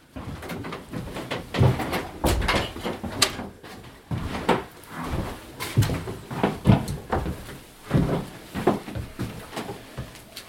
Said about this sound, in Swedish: Så stänger vi den här dörren igen